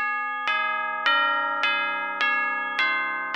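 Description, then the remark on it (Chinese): A church bell strikes midnight, tolling in steady strokes, about six even chimes roughly half a second apart, each bright metallic tone ringing on and overlapping the next. No voices are heard. “夜晚很快就来临了，当教堂的钟敲了十二下”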